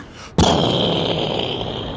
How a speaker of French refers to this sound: Contrairement aux audiences de clic, la fusée se met à décoller.